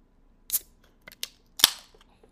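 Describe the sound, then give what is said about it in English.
A drink container is opened: a few sharp clicks and snaps, then a louder crack with a brief hiss trailing off. There is no talking. “Can you can you hear what I just opened? Oh, was oh is that your um your drink of choice tonight?”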